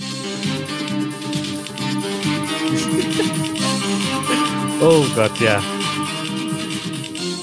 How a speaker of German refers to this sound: Was ist das? Da kriege ich Gänsehaut. Das ist die Musik, die Titelmusik. Ich weiß gar nicht, ob es heute noch so klingt.